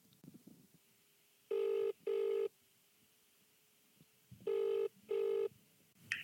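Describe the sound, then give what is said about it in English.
Two double rings of an outgoing phone call to the caller's wife, the ringback tone sounding in steady pairs of short bursts with quiet line hiss between them, heard as if through a handset. “Let's get her on the phone.”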